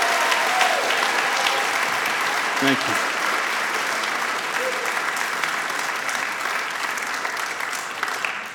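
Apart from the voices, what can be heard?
audience hand clapping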